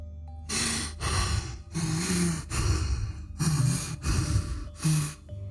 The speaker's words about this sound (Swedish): Jag hörde tydligt en manlig röst säga Herregud, är jag döende? Följt av några sekunders tung andning.